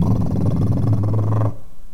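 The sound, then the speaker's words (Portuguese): A noisy car exhaust rumbles loudly with a deep, growling drone, holding steady for about a second and a half before cutting off abruptly to a faint hum. “Teu carro tá fazendo barulho, tá aqui.”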